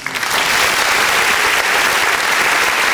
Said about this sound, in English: Let's give him a round of applause.